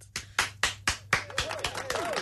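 A single person claps steadily, about four sharp claps per second, the claps then running quicker and softer alongside faint voices in the background.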